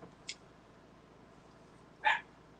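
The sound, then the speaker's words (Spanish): A dog barks twice, a faint short yip first and then a louder, sharper bark about two seconds later, against a quiet background with no talking. “Ay, esa perra.”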